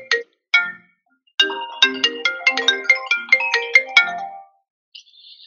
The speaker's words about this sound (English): Sorry, my phone just rang.